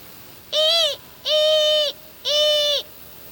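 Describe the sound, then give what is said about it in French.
A barn owl flying at night calls three times, each a clear, drawn-out tonal cry of about half a second, evenly spaced, over a quiet background with no talking. “Une bestiole qui ulule la nuit dans les airs sans que je puisse entendre ses battements d'ailes, c'est forcément une chouette effraie.”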